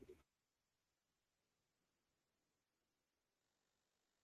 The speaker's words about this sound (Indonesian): koneksinya busuk guys